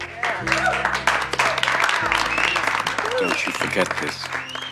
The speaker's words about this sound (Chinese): 全班立刻报以热烈的掌声